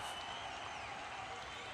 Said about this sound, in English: And Yuzaka getting a huge ovation here from the crowd at the Chaos Compound.